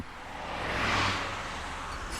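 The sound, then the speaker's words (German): Party guests' cars drive off from a party at Cheshire Square, a broad engine and tire whoosh swelling to a peak and then fading as they pull away, with no voices. “Lucils Freunde stiegen in ihre Autos und fuhren davon.”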